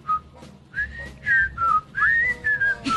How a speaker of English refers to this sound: See, there you go. Yeah, see, we're whistling on public radio.